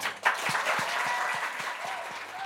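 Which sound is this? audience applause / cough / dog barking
audience applause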